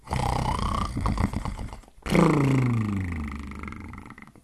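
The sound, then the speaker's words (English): A person imitates an old hound dog snoring as it sleeps in its bed: a rough, gravelly inhale rattles for about two seconds, followed by a louder, growling snore with a falling pitch that trails off. “They snore.”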